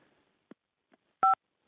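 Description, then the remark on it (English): A single short phone keypad beep, a steady two-tone electronic chirp, follows a couple of faint soft taps, sent during a phone call as one beep meaning yes. There is no talking. “Uh, one beep for yes and two beeps for no.”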